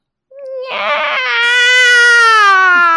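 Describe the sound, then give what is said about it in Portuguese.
A person's voice imitates a cat's pitiful meow, the cry the dieting cat makes when its food is late: one long, drawn-out wailing cry that rises and then slowly sags in pitch, loud, with no other sounds around it. “E aí agora eu tô fazendo a dieta e é um miado tão sofrido. Assim, parece que você está maltratando o gato se você demora para pôr a comida para ele.”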